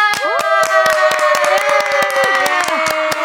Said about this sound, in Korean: 아, 지금 수많은 관중분들이 지금 환호성을 질러주고 계시고요.